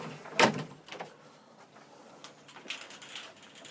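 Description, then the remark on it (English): A house door swings shut behind a person leaving the house, with one loud thud, followed by a few softer clicks and rattles as it settles. No one speaks. “Let that close behind me.”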